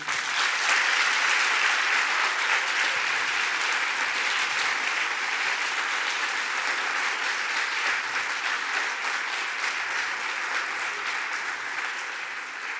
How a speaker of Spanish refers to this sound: Gracias, gracias, gracias y un gran aplauso